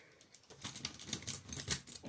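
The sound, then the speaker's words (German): Pens clatter and click as they are slipped into a pencil case, a quick run of small plastic taps and rustles, fairly quiet, with no talking. “Die kommen jetzt in mein Mäppchen.”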